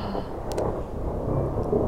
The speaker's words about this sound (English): Listen to that thunder, listeners.